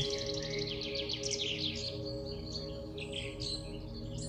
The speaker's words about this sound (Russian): В этом лесу вы слушаете пение птиц, прислушайтесь